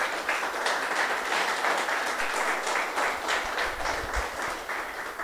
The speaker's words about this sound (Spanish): Y lo que queremos es juntos esta noche darle gracias a Dios por los 30 años del Centro Misionero, pero también por cada uno de nosotros y todo lo que traemos en el corazón. Amén. Démosle un fuerte aplauso al Señor entonces.